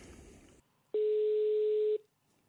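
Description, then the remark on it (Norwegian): A single loud, steady telephone ringing tone plays for about one second, a flat mid-pitched electronic beep heard while a call is placed again, after a brief burst of background noise, then silence. “Vi prøver å ringe igjen.”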